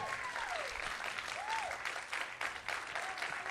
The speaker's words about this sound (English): This morning, somebody shout, Amen. Come on, give the Lord a strong hand clap this morning.